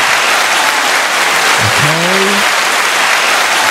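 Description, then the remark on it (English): A dense round of applause from a crowd fills the whole clip at a steady, loud level, with a brief rising tonal whoop or whistle cutting through midway. “Let's give a round of applause for that.”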